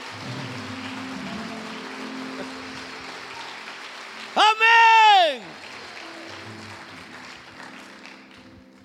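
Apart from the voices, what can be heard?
audience applause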